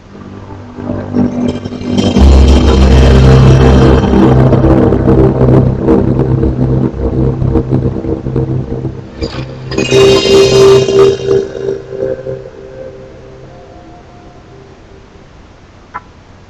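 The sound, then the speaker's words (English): A truck engine from a PlayStation video game rumbles loudly and revs, with a deep steady drone, a second roaring surge partway through, then a fade to a quieter idle near the end. No one speaks. “and what will my gaming segment be without my nostalgic PlayStation gaming truck.”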